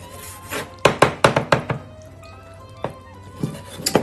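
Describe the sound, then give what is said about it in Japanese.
A knife chops chicken for curry on a cutting board: a quick run of five sharp thunks, then a few slower, scattered cuts. No one speaks. “ちょっと千切り、千切りっていうかいい感じに切っていきます。間違えて自分の手切りそうやから危ないよな。”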